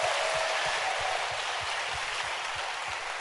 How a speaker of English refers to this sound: Clap your hands for yourself.